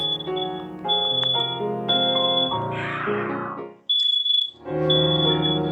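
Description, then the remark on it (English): A smoke alarm at home, set off while lunch is being made, shrieks with a steady, high-pitched electronic tone that runs almost the whole time, sounding loudly over background music; nobody speaks. “I think lunch is being made and the smoke alarm got set off”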